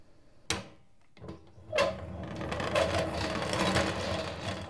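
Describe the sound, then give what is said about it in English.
A honey extractor centrifuge spinning honey out of the combs: a couple of knocks and clunks, then the machine winds up into a steady whirring rumble with a faint rattling hum as it keeps spinning. “It's the noise of the extractor.”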